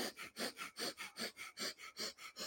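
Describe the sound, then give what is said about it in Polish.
Rapid, forceful pumping breaths of fire-breathing breathwork repeat in a steady fast rhythm, about ten in quick succession, each a sharp airy whoosh as air is pumped in, with no talking. “jakbyście pompowali w siebie powietrze. I po 35 razach znowu. I trzeci raz pompujemy.”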